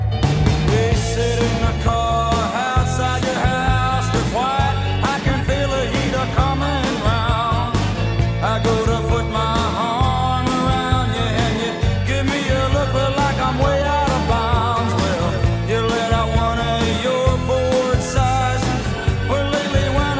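A rock song is played live at a soundcheck: a full band with pounding drums, bass and guitars stays loud and steady throughout, with no one talking over it.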